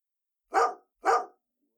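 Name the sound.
dog barking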